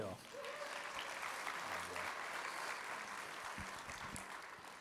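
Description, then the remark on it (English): A crowd breaks into sustained applause welcoming a pastor, a dense wash of clapping that stays steady and fairly loud throughout, with faint voices and cheers mixed underneath. “Will you make him uh, welcome as well?”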